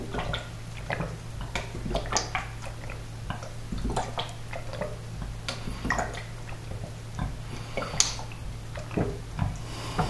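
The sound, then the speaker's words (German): Irregular splashes and trickles of water being poured, mixed with small liquid sips and clicks as someone drinks a bit of water, over a low steady hum. No one speaks. “Ich werde mal noch was trinken, ein bisschen Wasser.”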